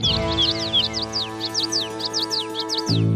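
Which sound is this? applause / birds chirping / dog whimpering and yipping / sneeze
birds chirping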